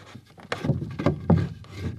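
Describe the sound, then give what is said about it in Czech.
A wooden barn gate being worked, with a few hard knocks and rattles as a sturdy bolt is slid and clunks into place. Sharp, fairly loud impacts come at an uneven pace, with no talking. “Bytelná petlice, říkám to dobře? Určitě, je to Správný zvuk vrat.”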